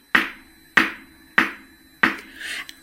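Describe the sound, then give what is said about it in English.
Four quiet, evenly spaced knocks on a door, made as a suspicious-knocking sound effect for a children's story, each a sharp hollow tap that fades quickly, with a faint scuff after the last one and no voices. “So, some can be like if there's somebody coming quietly and you want to knock at the door, you know, suspiciously.”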